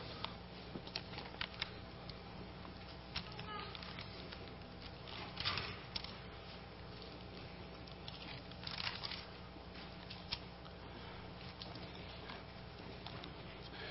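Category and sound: household object, audience turning Bible pages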